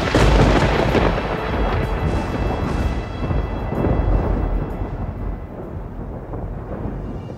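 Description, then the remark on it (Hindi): A thunderous boom as a great bow, worshipped with sandalwood and flowers, is lifted, strung and broken in the middle by a sixteen-year-old prince, snapping loudly and swelling into a deep rolling rumble that carries far and wide, sustains for several seconds and slowly fades, with no voices. “बड़ी सहजता से बहुत इजीली उस धनुष को उठाया उसे स्ट्रिंग किया और उसे बीच में से तोड़ दिया उस धनुष के टूटने से पूरी दुनिया में दूर दूर तक आवाज आई”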